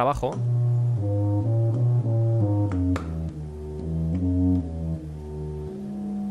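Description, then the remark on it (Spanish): A subcontrabass flute plays a slow line of deep, sustained, breathy notes that step between pitches, with a soft attack at the start and a steady, fairly loud tone throughout. “Ahora vamos a escuchar la flauta sub con”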